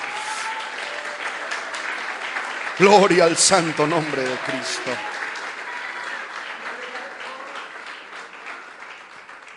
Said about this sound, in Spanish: Yo le invito a que le demos un aplauso bien fuerte al Señor. Aleluya.